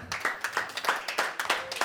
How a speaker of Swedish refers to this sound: En applåd också för My som inte kunde vara här